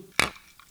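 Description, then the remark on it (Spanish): Drinking glasses holding lime Gatorade mixed with José Cuervo Tradicional tequila clink together once in a toast, a sharp bright strike with a short high ring that fades quickly, heard on its own without talk. “Muy bien, se rompió el vaso.”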